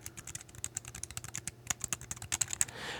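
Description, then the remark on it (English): Rapid, light clicking of typing on a flat, low-profile computer keyboard with no row of F keys and tactile keys, a steady patter of soft keystrokes with no voices. “And I don't know if you can tell by the sound of it here.”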